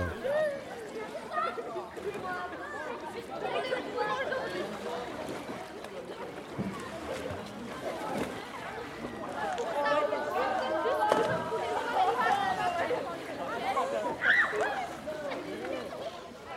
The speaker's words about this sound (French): ambiance de plage, on aura quoi On aura de l'eau, on aura un bateau qui va passer au loin, on aura des enfants qui vont jouer, et puis dans ben, des oiseaux, des choses comme ça.